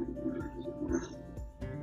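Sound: airplane flying overhead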